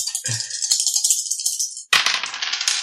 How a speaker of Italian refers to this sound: Direi che tiriamo la tier, ossia 3, e vediamo che risultato fa. 3 dadi.